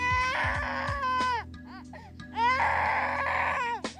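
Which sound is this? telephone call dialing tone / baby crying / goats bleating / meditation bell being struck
baby crying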